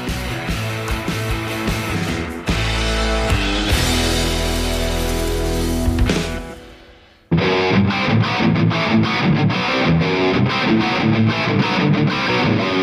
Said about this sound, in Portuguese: Então vem, vinheta, vem, vem que vem quicando, vai! Vai!